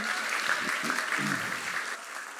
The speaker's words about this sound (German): Ja, danke vielmals euch zwei, dass ihr da euer Leben und eure Erlebnisse so offen mit uns geteilt habt. Genau, ist wirklich mega cool. Lass uns noch einen Applaus geben, ey.